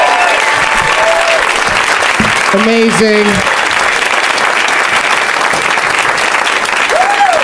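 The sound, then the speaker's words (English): Loud, sustained applause from a large audience for three contestants in a tournament of champions fills the whole stretch, a dense steady clatter of clapping, with a man's voice briefly speaking over it. “Let's hear it for all three of them.”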